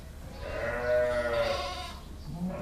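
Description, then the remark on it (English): Sheep bleat in a reverberant barn on a dairy sheep farm near Roquefort at 5 p.m., gathering to be milked; one drawn-out wavering baa in front with other animals calling around it, a steady busy background of livestock noise. “It's 5 p.m., and the sheep on the Seguin farm are getting ready to get milked.”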